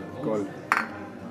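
glasses clinking

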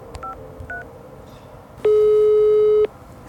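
telephone call tone

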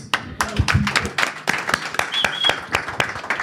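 audience applause

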